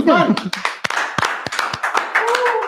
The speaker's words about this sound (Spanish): Fuertísimo aplauso y reconocimiento al señor tu...